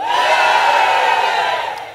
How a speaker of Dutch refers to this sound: Maar zullen wij eens proberen om op zijn Noord-Hollands te juichen? Met een beetje passie. Oké? Shalom, kunnen we juichen? Come on, kunnen we juichen?